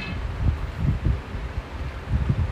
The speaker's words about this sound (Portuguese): Gente, como é que tá o barulho aí? Porque eu tô com um ventilador aqui que tá próximo. Eu fico com medo dele ficar fazendo aquele, aquele barulho de, de vento, não tem? Tá com aquele barulhão de vento?